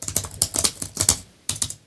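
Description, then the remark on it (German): A laptop keyboard's space bar is pressed repeatedly in quick succession in an open text file, making sharp, fairly loud clacks, then a brief pause before a final couple of presses. No voices. “Ja, das ist meine Leertaste.”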